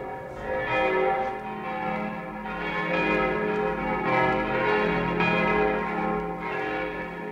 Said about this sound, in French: Revenons en arrière, 17 ans exactement, alors que par un beau dimanche de la Quasimodo, les cloches de Notre-Dame sonnent la fin de la messe.